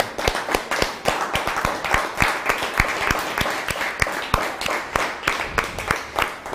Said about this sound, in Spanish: Pero les saludamos y hoy levantamos un fuerte Hatzameach John Teruá, con un fuerte aplauso a todas las naciones.